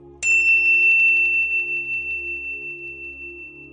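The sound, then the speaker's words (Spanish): A tuning fork, used for harmonizing alongside a floral aroma, is struck once and rings with a bright, high, pure tone that wavers in a steady pulse as it slowly fades, over a low continuous hum. “Es delicioso y también con el sonido del diapasón. Últimamente hemos usado este diapasón para ese sonido.”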